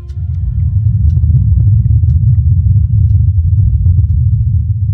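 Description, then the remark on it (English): A continuous low, muffled droning rumble of the Ingenuity helicopter's rotors on Mars, recorded by the rover's microphones during its fourth flight of 887 feet; steady and unbroken for the whole stretch, heavy in the bass with faint crackles above and no voices. “The rover's microphones recorded the sound of the helicopter.”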